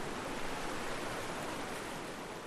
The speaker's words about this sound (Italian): Ed eccolo qui il nostro fiume.